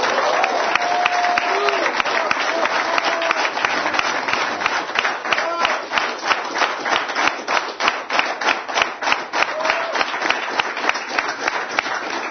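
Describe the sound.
A studio audience, including a group from Ashdod, breaks into sustained applause on a show about the greatness of the friends: dense clapping that settles into a steadier rhythmic beat, with a few faint voices and whistles mixed in.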